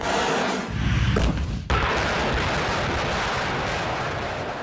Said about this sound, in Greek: Το σενάριο προβλέπει ανακατάληψη εδάφους που έχει καταλάβει εχθρική δύναμη στις νότιες ακτές του νησιού. Μαζικά πυρά πυροβολικού, πυραυλικέ επιθέσει, βολέ αντιαρματικών γίνονται με στόχο την εξουδετερώση εχθρικών δυνάμεων.